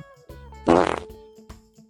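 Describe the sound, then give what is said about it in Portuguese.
A short, loud fart sound effect bursts out at once, a brief rippling blast lasting about a third of a second, standing alone with no talking around it. “Peido curto.”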